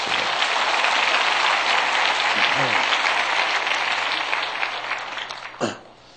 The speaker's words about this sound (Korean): 내일도 기대가 됩니다. 오늘 한번 격려의 박수 한번 들어주시고.